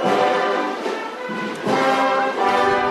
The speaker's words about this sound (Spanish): suena la marcha real para Jesús Despojado que entra en la catedral